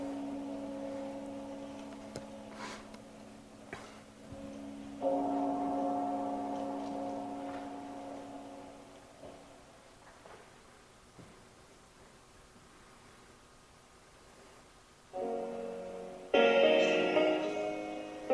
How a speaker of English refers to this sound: Here she is. She's playing at Agape. This is Dr. Michael Beckwith uh, banging the, the gong.